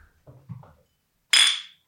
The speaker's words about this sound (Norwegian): Skål! Tar oss en liten pils i dag.